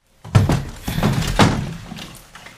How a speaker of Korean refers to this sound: 그런 거라도 입을까 싶어 다시 옷장을 열었다. 열자마자 숨이 턱 막혔다.